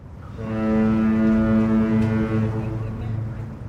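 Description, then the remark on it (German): A ship's foghorn in San Francisco, with fog over the city, sounds one long, deep, steady blast lasting a few seconds, loud and droning with rich harmonics, fading slightly at the end, with no voices over it. “Schon beim Aufwachen, noch im Halbschlaf, hört man in San Francisco, ob Nebel über der Stadt liegt.”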